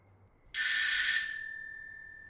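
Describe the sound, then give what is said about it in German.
A single bright, metallic bell ring, rung at night to wake someone, starts abruptly, rattles for under a second, then fades into a thin lingering tone. It is fairly loud, with no voices. “Ja, ich klingel nochmal, weil ich muss ja den irgendwie wach kriegen.”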